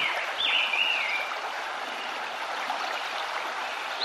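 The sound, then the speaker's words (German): Steady flowing water, like a gentle stream, fills the scene with a continuous broad hiss, while a few brief bird chirps ring out near the start before fading into the water's constant rush. “Lausche den Klang des Wassers und höre dem Zwitschern der Vögel zu.”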